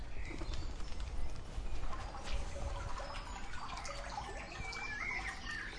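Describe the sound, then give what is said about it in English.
Birds call intermittently in Sudbrook Park Woods, short chirps and whistles standing out against a steady low rumble and faint water-like background noise, with no one speaking. “Oh, just a bird, I think.”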